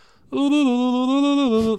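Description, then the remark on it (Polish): A single voice sings one loud, sustained note for about a second and a half, imitating the opening of a TV theme tune, with only a slight waver in pitch before it cuts off. “wisienką na torcie jest to, jakie intro jest w tym serialu”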